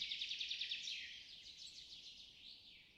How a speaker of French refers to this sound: Est-ce que tu entends des oiseaux?